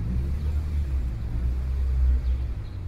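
A taxi's engine rumbles low and steady throughout, a continuous drone like riding inside the car, with no voices and no breaks.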